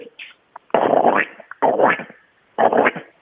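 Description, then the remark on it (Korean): A caller on the phone does a raspy, buzzy Donald Duck impression for an impression contest, in three loud sputtering bursts, each about half a second long, with short gaps and a few faint squawks before them. “도날드 덕 성대모사 대회에 나갔다고요?”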